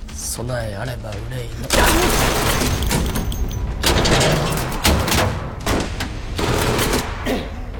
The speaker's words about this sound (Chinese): 哪知道小鬼衣服防电，没被电晕，反手就是一梭子子弹。